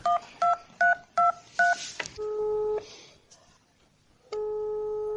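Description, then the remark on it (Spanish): A rapid run of five touch-tone telephone keypad beeps, clear, as someone dials to call a boy back, followed by a longer steady tone and, after a short pause, another sustained phone tone. “¿Para qué estoy llamando al nene para que vuelva?”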